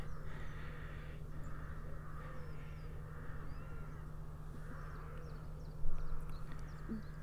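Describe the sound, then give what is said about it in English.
Crows on a golf course caw over and over in harsh, drawn-out calls, above a steady low rumble of wind or traffic, with faint bird chirps higher up. “And some rather noisy crows.”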